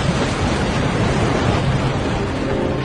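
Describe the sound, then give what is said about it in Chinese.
Ocean waves churned up by an excited pod of whales make a steady, dense rush of water that stays loud and even for about three seconds, without distinct breaks or voices. “温度的上升使得冰川开始融化，兴奋的鲸群搅起了阵阵的海浪和发出的巨大的声响，竟导致了一次事故的发生。”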